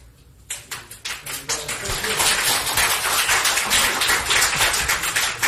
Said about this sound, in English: There you go. He got a standing ovation when he came oh. back into the, the courtroom.